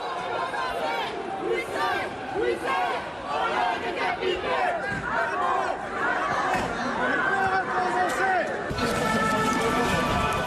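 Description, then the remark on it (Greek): A dense crowd of thousands protesting against the Macron government fills the streets of large French cities with overlapping shouts and chatter, voices rising in chanting bursts over a steady, loud roar that never lets up. “Χιλιάδε πολίτε κατεβαίνουν στου δρόμου των μεγάλων πόλεων κατά τη κυβέρνηση Μακρόν.”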